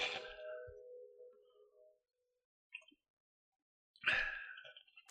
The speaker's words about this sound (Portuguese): Vou beber água antes, porque senão não vai dar.